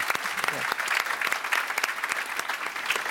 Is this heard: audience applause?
yes